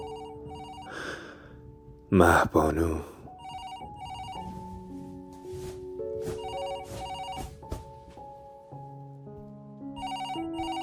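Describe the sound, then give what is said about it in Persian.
A phone rings with a melodic electronic ringtone, its steady tonal notes repeating close by for several seconds while a voice briefly speaks and breathes over it early on. “حوالی صبح بود تلفنم زنگ خورد”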